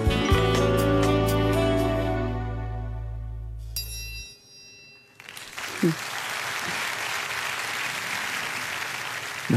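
A sustained musical passage with a deep held bass rings out and fades, then an audience breaks into steady, dense applause that carries on to the end without voices.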